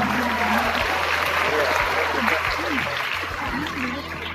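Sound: audience applause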